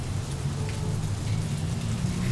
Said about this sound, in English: Why are the sprinklers going off?